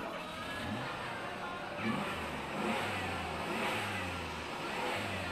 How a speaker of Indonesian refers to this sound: Lagi starter mobil ya Pak ya? Iya nih Bu, biasa lagi ngetes kekuatan jagoan sekolah.